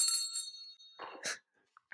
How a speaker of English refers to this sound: that, that bell's got to go. I know, but it's so it. loud.